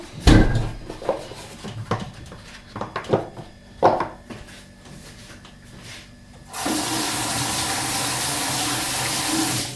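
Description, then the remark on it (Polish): A few soft knocks and handling clatters, then a tap opens and warm water runs steadily for the last few seconds as an egg is rinsed under the stream. No one speaks. “Oczywiście musi być opłukane pod ciepłą wodą.”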